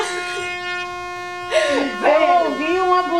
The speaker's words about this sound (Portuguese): Opa! Eu ouvi uma buzina?